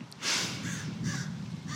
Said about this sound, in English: the crows agree, clearly.